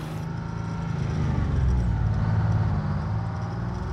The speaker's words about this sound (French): Le 8 novembre 1939, le premier convoi de camions chargés de boiseries quitte Versailles suivi d'un deuxième 13 jours plus tard.